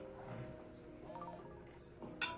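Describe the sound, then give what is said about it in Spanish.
A woman's mobile phone rings during dinner at a restaurant with a steady, tonal electronic ringtone that holds throughout at a fairly low level, and a brief sharp burst of noise comes near the end. “Le suena el móvil.”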